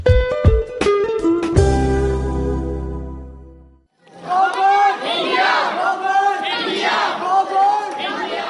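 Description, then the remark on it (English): A series of sharp ringing strikes fades into a low hum, then a loud crowd of many campaigners, supporters and families of child cancer patients at the Taj Mahal in India breaks into energetic, overlapping chanting and shouting that continues to the end. “It's a noisy affair at perhaps the most tranquil spot on Earth.”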